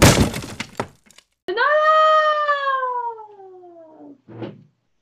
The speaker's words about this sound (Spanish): al llegar a la mitad del puente, se rompió el tablón y hasta abajo fue a dar el cazador.